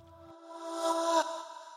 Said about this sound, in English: These effects include things like risers, noisy downers, reversed vocal samples,